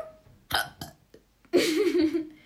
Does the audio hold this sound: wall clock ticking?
no